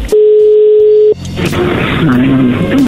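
A steady telephone connecting tone holds for about a second, clear, then cuts off into muffled background voices and line noise.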